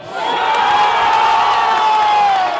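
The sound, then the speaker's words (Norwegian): A stadium crowd of Swedish football fans erupts in loud, sustained cheering just before half-time in a match against Ukraine, a dense roar of many voices with whoops rising above it, holding steady for a couple of seconds. “Like før pause var det likevel klart for svensk jubel også.”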